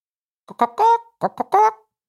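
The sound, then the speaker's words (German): A voice mimics a rooster's crow twice in quick succession, each call a few short clipped syllables rising into a drawn-out, bright tone, fairly loud. “Hm, das ist doch ein Hahn.”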